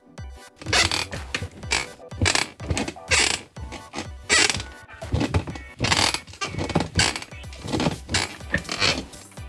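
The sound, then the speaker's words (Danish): A wooden chair creaks and groans repeatedly in irregular bursts, with ratcheting, grinding squeaks rising and falling over several seconds, fairly loud and without any talking. “Vil du være Stol? Tusind tak, fordi du gad komme forbi mig og knirke i dag.”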